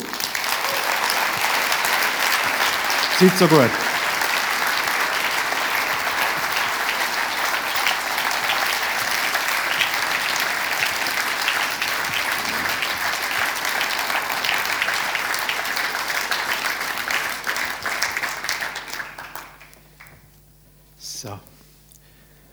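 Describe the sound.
Loud, sustained audience applause at the Buchiberger Talk, welcoming guests including Adolf Ogi, with dense clapping that holds steady for about twenty seconds, then fades out, followed by a brief spoken phrase.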